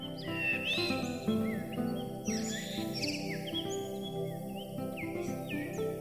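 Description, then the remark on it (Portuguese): A blue rock thrush sings in clear, whistled phrases with rising and falling notes, repeated every second or so over a soft, steady background hum. No one speaks. “Permite-nos escutar o belo canto do melro das rochas.”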